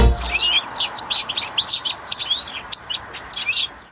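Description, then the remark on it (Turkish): A European goldfinch in Switzerland chirps and twitters in quick, lively bursts of high, tinkling notes, fairly loud, with no talking. “Duyduğunuz bu kuş cıvıldaması İsviçre'de yaşayan bir sakaya ait.”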